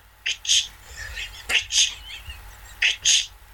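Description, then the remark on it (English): A voice imitates a woman with multiple sclerosis coming down a hallway with a walker: breathy, hissing clunks in three paired bursts, spaced evenly like slow steps, fairly quiet. “walked with a walker.”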